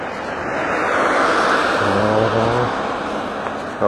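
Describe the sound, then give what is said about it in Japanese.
A single car passes on a country road, its broad tire-and-engine rush swelling to a peak midway with a low humming tone, then fading away. No one speaks. “えー、っとこの田舎道車は通ってる新幹線は通ってる、え人とすれ違わないとね”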